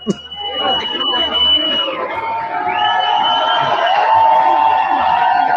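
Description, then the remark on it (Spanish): A large concert crowd roars at the end of a show as a performer climbs onto the stage, with loud cheering and shrill, sustained shouts and screams blending into a dense, continuous wall of noise that stays strong for the whole stretch. “el lobo se acaba de subir al escenario, por eso está gritando.”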